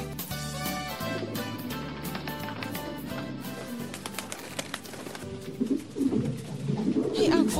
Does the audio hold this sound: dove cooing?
yes